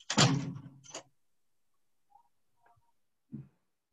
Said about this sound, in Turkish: Yavaş kapat kapıyı.